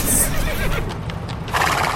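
A horse whinnies loudly, a shrill, wavering neigh lasting a couple of seconds with a rising burst near the end, mixed with some rustling and low background noise.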